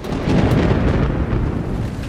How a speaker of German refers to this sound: Ein schweres Hagelunwetter wütet über Oberbayern.